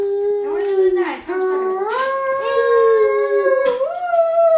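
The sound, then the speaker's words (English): A voice imitates a shofar horn blast with the mouth, holding one long loud, wavering tone that climbs in pitch, dips briefly and then rises again for several seconds. “do your shofar sound. No, no, do it with your mouth.”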